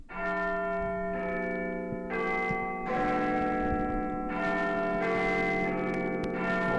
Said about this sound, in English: And I don't know if you guys have heard about this, but the best known clock in the world, and that would be the one you're listening to, Big Ben in London, it's shutting down for repairs